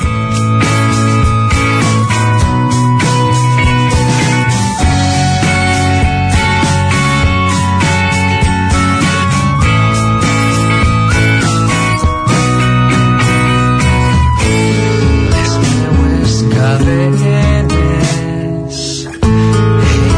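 A rock song cover sung in Catalan plays loudly and steadily for the whole stretch, with a full band of drums, bass and guitars driving underneath and no talking over it.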